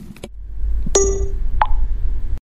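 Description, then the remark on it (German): A kiss made with the lips: a couple of short, sharp smacking pops, the first with a brief ringing tone, over a steady low background hum. No one speaks. “In eure kleinen Gesichter rein gebe ich euch einen Kuss.”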